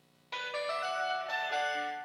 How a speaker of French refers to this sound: Tu vas nous mettre le jingle le, plus dingue, le ding dong. Tu t'as ça, tu hein, t'as ça, t'as un jingle magnifique. Vas-y.